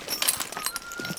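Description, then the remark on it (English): A team of horses harnessed to a large sled moves at a steady walk, with soft hoof thuds and a light jingle of harness gear, in a quiet outdoor setting in the Gros Ventre wilderness in winter, being directed over to a mountain of hay. “Each day, he harnesses up a oh. team of horses to a large sled and directs them over to a mountain of hay, which is delivered by tractor at the start of the season.”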